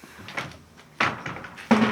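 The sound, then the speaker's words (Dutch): A heavy church door is unlatched and swung open, with three distinct clunks and rattles of the latch and wood, fairly loud, with no one speaking. “Een heel klein haakje op, of is dit de deur nog niet?”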